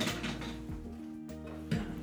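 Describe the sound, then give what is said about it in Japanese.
A chair rattles and creaks in a few rough, clattering bursts, with a steady low hum underneath and no voices. “ちょっと椅子をガラガラ弾いてる音が思いっきり入ると思いますけど”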